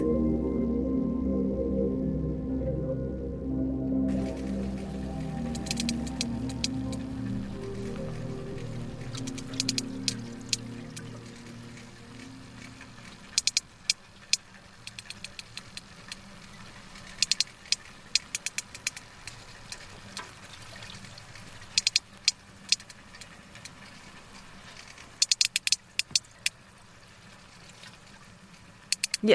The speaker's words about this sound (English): It's what we call a coda. It's a sequence of clicks that sperm whales use um, as a social signature, basically kind of like a signal that defines each clan or each family group.